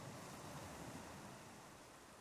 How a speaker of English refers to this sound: You hear the water lapping against the dock and the ship